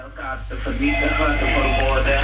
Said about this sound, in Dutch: Volgens mij is uw telefoon op de achtergrond aan. Ik hoor een telefoon. Ah, ik bedoel een radio. Oh, u hoort een galm. Die heb ik net weggehaald.